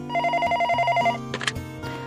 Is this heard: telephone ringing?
yes